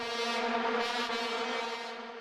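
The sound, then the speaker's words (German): A trombone, a brass instrument, blares a brassy, sustained low note loudly and steadily for a couple of seconds, rich in overtones, with no talking. “Platz 8, die Posaune.”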